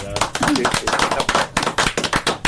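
Applause from a small group: a dense, steady patter of sharp claps that runs loud and unbroken through the whole clip, with no talking over it.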